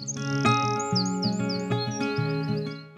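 A small songbird, like a wren, chirps in quick, high twittering bursts throughout, over a steady bed of soft background music with low notes.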